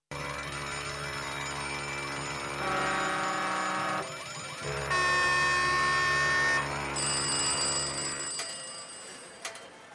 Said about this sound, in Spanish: Alarmas, hay muchas.